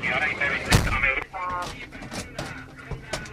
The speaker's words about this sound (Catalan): Aquest so que sentiu és l'escut d'alguns d'aquests agents mentre obren i tanquen les portes.